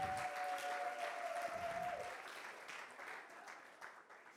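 A crowd claps steadily in a dense wash of applause for Jesus the Lion, loud at first and gradually thinning out; a faint sustained tone rings briefly near the start.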